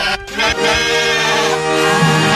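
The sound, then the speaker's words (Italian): A sheep bleats in one long, loud, wavering cry lasting a couple of seconds, with a nasal, quavering tone and no talking over it. “Sì, esatto, ci colleghiamo col TG Pecora, c'è il nostro inviato direttamente dai campi e dalle sue pecore che ci aggiorna sulle situazioni attuali.”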